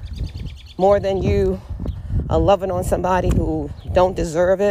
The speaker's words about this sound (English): Listen to the birds chirping. It's beautiful out here.